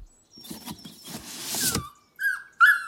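A very fat, jet-black puppy, one of the pups of a family dog named Blacky and given as a birthday present, lets out a couple of short, high whimpers after a stretch of soft rustling and shuffling noise.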